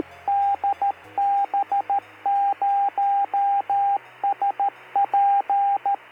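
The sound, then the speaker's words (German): An amateur radio repeater, a relay station that receives and passes on radio signals, transmitting: a narrow, hissy band of static and a clear steady tone keyed in rapid dot-and-dash bursts, like Morse code, loud and alone without any talking. “Was ihr gerade als letztes gehört habt, äh, war ein Relais. Das ist so eine Art ja, Verstärker, Weiterreichungsstation, die Funksignale aufnimmt und so weiterreicht”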